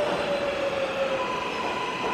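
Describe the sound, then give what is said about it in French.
A Barcelona metro train rattles steadily along the tracks, a dense continuous rumble with faint high whining tones of wheels on rails, loud, heard from inside the shaking carriage by a passenger holding the overhead handles. “Le métro s'arrête enfin.”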